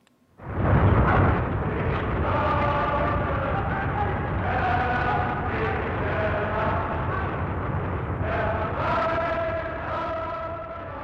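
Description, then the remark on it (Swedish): A heavy, continuous artillery cannonade at night as the front line draws nearer, roaring loudly, a dense rumbling wall of booms with shifting whining tones layered over it, lasting throughout without pause. “låg sjuksystrarna Rut och Sara vakna om natten på sitt rum och lyssnade på brakande kanonader”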